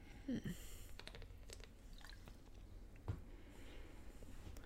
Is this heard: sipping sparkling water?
yes